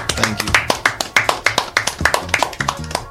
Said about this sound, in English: Let's clap it on one time, man.